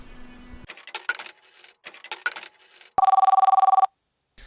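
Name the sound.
telephone ringing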